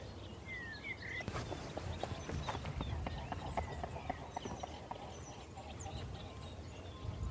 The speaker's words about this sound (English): There's a swan taking off, I think. Can't see because there's a huge bramble pile between us and the water. It's an impressive beating of wings on the water.